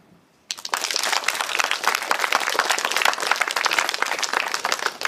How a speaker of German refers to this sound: freundlicher Applaus für den Fusionsreaktor.